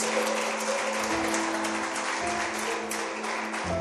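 A church audience applauds loudly for the name of the Lord: a steady, dense wash of applause sustained for several seconds, with a faint tonal hum or music underneath and no voices over it.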